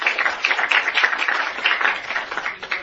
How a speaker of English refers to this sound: All right, let's give her another round of applause.